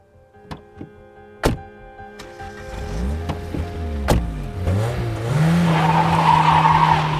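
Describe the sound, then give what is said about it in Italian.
A few sharp thumps like doors slamming as a girl is forced into a red car, then an engine revs hard and the car tears away at full speed with loud, screeching tires, growing noisier. “Dopo una breve discussione concitata, la ragazza è costretta a salire sull'autorossa che parte a tutta velocità.”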